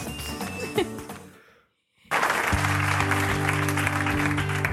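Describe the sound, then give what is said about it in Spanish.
Loud, dense applause bursts in suddenly after a short silence and keeps going, with sustained tonal notes underneath; before the gap, a fading mix of music and noise. “Aplausos, aplausos a mí.”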